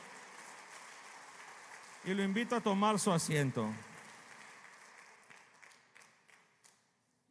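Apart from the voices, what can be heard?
audience applauding loudly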